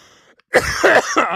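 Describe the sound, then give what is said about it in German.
A loud burst of coughing: three harsh, raspy coughs in quick succession after a brief quiet moment, with no talking. “ich musste husten.”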